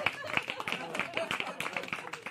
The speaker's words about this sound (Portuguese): Palmas, palmas, palmas pro grande ídolo Renato Gaúcho.